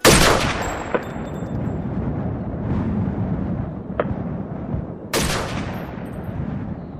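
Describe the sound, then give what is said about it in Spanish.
Two sharp, small explosive bangs, each trailing off into a long rumbling echo, with a few fainter pops between them, like gunfire, over a steady low background. “Desde su refugio en la cocina oían pequeñas explosiones.”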